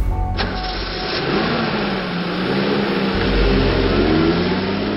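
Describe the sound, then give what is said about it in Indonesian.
The narrator's car engine starts up loud, its steady rumble rising in pitch as it revs and pulls away, with no voices. “Saya mengajak Lucy Cole naik ke mobil saya.”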